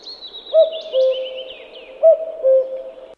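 Two clear cuckoo calls, each a descending two-note 'cu-coo', spaced about a second and a half apart, over a faint continuous twittering of small birds in the background.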